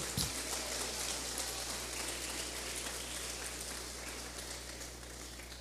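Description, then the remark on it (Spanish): A church audience claps their hands together as an offering of applause to the Lord, a dense, sustained, steady crackling wash of many hands that continues without pause throughout, with a low hum underneath and no one speaking. “De una ofrenda de palmas al Señor.”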